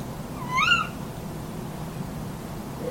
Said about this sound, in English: Quick? Quick? This, this sounds perfectly normal. Like, this is familiar. But I would have sworn that you hear one sound following the other. You've never been trapped between two owls having a conversation.